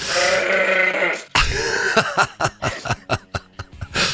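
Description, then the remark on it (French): Goats bleat: one long, drawn-out wavering call, a brief pause, then a quick run of short stuttering bleats pulsing in a steady rhythm. No one speaks. “T'entends les chèvres Oui, oui, j'entends bien.”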